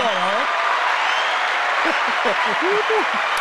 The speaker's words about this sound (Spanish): ¿Qué pasó? Fue, un, fue un, aplauso.